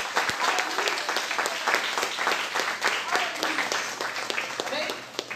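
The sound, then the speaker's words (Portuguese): Steady audience applause fills the whole stretch, a dense wash of many hands clapping at an even, fairly loud level, with scattered voices mixed into the crowd noise, given by a church audience closing an evening service with applause to the name of the Lord Jesus Christ. “Então, nós vamos terminar o culto dessa noite dando um forte aplauso ao nome do nosso Senhor Jesus Cristo.”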